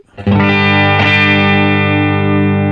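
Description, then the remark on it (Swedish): A distorted electric guitar chord rings out loudly through an effects pedal with everything at full volume, thick and saturated with a steady sustain and a slight pick scrape about a second in, with no talking. “Ja, full volym på allt.”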